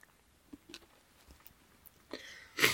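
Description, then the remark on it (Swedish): A forceful fit of coughing during cold season: a rough, breathy burst followed moments later by a louder, sharper explosive cough, after a few soft mouth clicks and breaths in near silence. “att det kommer lite hostattacker emellanåt här.”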